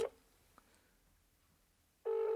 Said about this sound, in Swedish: Nu ringer det.